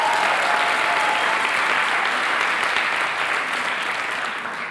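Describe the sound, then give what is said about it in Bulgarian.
An audience applauds steadily, a dense wash of many hands clapping at once, loud and sustained throughout before easing slightly toward the end. “О, ако ръкопляскаш, ръкопляскаш, като че вярваш за повече.”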